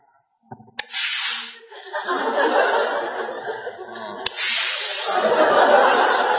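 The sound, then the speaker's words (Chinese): A voice imitates an annoyed teeth-sucking hiss, the sound young women make to signal that someone has bumped into them in a crowd: two long, loud, breathy hissing draws, the second starting after a brief sharp click, with no talk over them. “嘬牙花子就是。”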